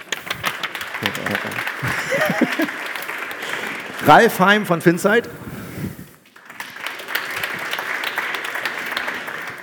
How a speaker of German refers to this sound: Ihr dürft klatschen.